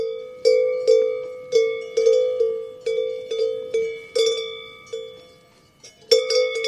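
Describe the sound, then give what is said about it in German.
Several cowbells clang irregularly and overlapping, with bright metallic rings and ringing overtones, as about 40 local dairy cows move on an alpine pasture beside a narrow hiking path toward the Ascherhütte. No talking is heard. “Aber eine tolle Tour über Almen vorbei vorbei an Kühen, Sie hören es schon,”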